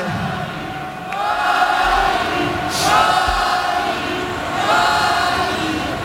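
A large stadium crowd, all standing, chants the name "Joaquín" in unison, three loud rising swells over a constant roar of many voices.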